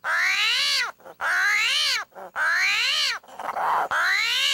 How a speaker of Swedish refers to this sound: ett YouTube-klipp på en screaming armadillo